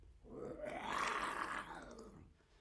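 A person imitates a lion's roar, like the lion in a film studio's logo intro: a single drawn-out roar swelling to a loud rasping peak around the middle before fading away.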